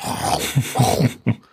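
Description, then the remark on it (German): The Metro-Goldwyn-Mayer logo lion at the opening of the film Tanz der Vampire roars in a series of short, rough growling bursts: three or four low snarls, then a sharper final roar that fades out. No one speaks. “Ähm, der fängt schon an, so mit dem, mit dem äh, Metro Goldwyn Mayer Logo, diesem Löwen”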